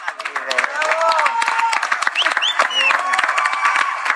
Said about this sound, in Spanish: Pues como siempre, aplausos.